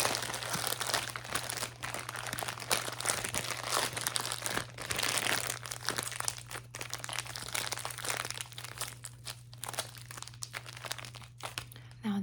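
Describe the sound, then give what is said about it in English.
Paper crinkles and rustles continuously for several seconds with sharp crackling bursts over a steady low hum, as paper is crumpled and folded while wrapping a gift. “That's not how you wrap a gift. This is how you wrap a gift.”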